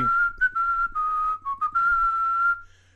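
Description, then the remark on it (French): A person whistles a short melody, clear and fairly loud, in a few connected phrases with brief breaks between notes, over a faint low hum and no talking. “Et vous êtes en compagnie du siffleur”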